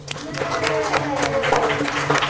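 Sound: audience applause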